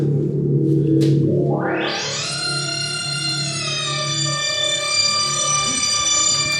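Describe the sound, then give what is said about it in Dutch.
Electronic tones from a modular synthesizer: a low buzzing drone, then a bright, harmonically rich tone sweeps upward and holds as a steady, loud, slightly gritty sustained note. “dit is dus een, eh, een, een modulair setter.”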